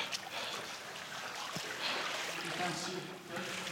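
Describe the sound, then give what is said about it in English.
Sloshing and splashing of someone wading through shallow, very dirty water full of dead bird parts, moving along the curved outer wall of a hippodrome toward its stables and tunnels. Steady, with a faint low murmur underneath and no clear speech. “This water is maybe the dirtiest water I've ever been in.”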